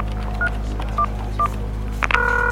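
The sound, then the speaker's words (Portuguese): Three short, evenly spaced touch-tone beeps of a phone being dialed to call Sun Microsystems, followed by a steady, longer tone on the line, all over a low constant hum with no voices. “Liga para a Sun Microsystem, coloca eles no telefone agora.”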